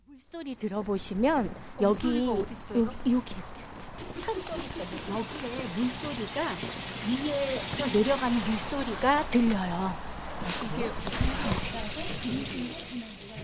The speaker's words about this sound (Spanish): ¿Han escuchado un ruido como de aguas corriendo? Es el arroyo que baja del valle del monte Inwangsan y llega hasta Sochon. Si bien ahora está cubierto por el asfalto, todavía se escucha el sonido del agua si se presta atención